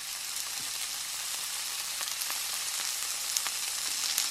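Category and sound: food or drink, food sizzling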